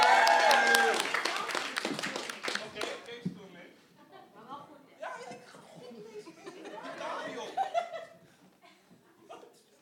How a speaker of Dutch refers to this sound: Ja, try even een aanmoedigend applaus voor de singles.